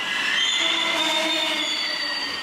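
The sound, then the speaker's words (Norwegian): A metro train in Cairo, Egypt, rolls into one of the city's 74 metro stations with a steady, high-pitched squeal of wheels on rails, sustained tones layered over a continuous rumble, loud and unbroken throughout with no voices. “Metroen suser inn mot en av Kairos 74 metrostasjoner.”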